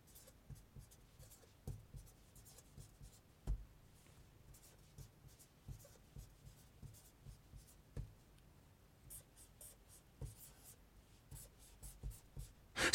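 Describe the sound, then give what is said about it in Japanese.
Pen or pencil scratching across paper as letters are written by hand, with short strokes and taps in an irregular rhythm, fairly quiet, with no talking. “それ何ちゃんと文字書くのはいはいきます”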